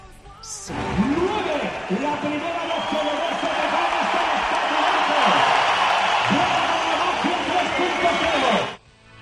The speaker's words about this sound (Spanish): Los aplausos para, Ricky Rubio. Te los has llevado justo cuando, cuando más eh, importante era.